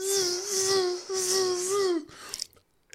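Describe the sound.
A person hums a steady, nasal, high-pitched whine for about two seconds, mimicking a buzzing mosquito, with a brief dip in the middle before trailing off into a few soft breaths.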